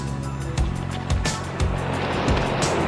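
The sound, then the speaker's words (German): A motorboat approaching an island drones steadily across the water, loud, with rushing spray and hull slaps thumping against waves every half second or so. “Hey, sieh mal das Motorboot. Es kommt ja her.”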